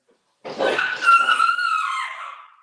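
A dog barks in one drawn-out, whining cry about two seconds long, fairly loud and sliding lower as it fades, with no one talking.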